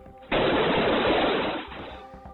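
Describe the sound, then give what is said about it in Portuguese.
A loud, rapid burst of gunfire, a gunman's first shots in a school hallway in Uvalde at 11:33 a.m., erupts suddenly, shots blurring together for about a second before fading into a lingering, echoing rumble. No voices can be heard. “Isso era 11h33 da manhã, quando o assassino, de Uvalde deu os seus primeiros tiros.”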